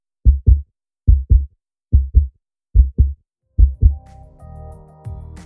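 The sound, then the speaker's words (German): A thumping heartbeat plays alone, five steady lub-dub double beats in an even rhythm, then gives way to a low, swelling musical tone with a soft hum beneath; it introduces the segment Das Herzl der Woche of the political magazine Das Zackerl. “Das Herzl der Woche.”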